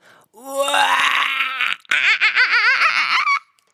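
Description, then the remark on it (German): A monkey screams loudly, first a long rising shriek, then a brief break and a burst of rapid, warbling hoots that waver up and down. “Dabei macht er gerne Krach und ist sehr laut. Er schreit”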